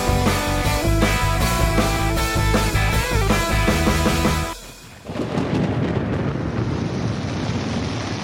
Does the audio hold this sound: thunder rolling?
yes